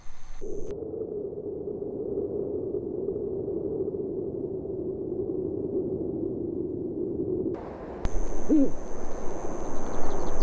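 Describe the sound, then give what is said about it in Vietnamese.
Deep, low hooting from a mated pair of Eurasian eagle-owls signalling to recognize each other carries steadily for several seconds. Near the end, a brighter burst of background noise and a brief higher call join in. “đôi vợ chồng cú đại bàng Á Âu đang phát ra tín hiệu để nhận biết nhau.”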